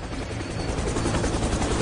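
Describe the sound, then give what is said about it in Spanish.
A helicopter thunders steadily, its rotor producing a dense, continuous low throb with a rapid pulsing chop that stays loud for the whole moment. “Es que el helicóptero no me dejó bien”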